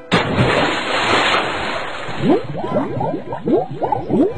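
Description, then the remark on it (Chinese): A loud splash as a rabbit falls into a river while wading across a stream, followed by a rushing wash of water and then a run of gurgling, bubbling pops as it settles. No one speaks. “趟过小溪的时候，小灰没有拉住过河的绳子，就扑通一声掉到河里去啦。”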